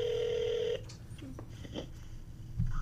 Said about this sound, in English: Yeah, my phone cut out for some reason. Yeah, it's said call drop. That's alright, we back on.